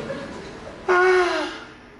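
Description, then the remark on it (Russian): A patient being examined by a doctor takes a single sharp, loud intake of breath on being told to breathe deeper, with a voiced, gasping edge, lasting about half a second before trailing off into quiet room tone. “Дышите глубже.”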